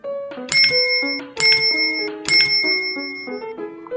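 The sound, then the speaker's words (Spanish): A doorbell rings three times in quick succession, each bright metallic ding ringing out briefly over a soft, steady melodic tune playing underneath. No one speaks. “Vamos a picar más fuerte.”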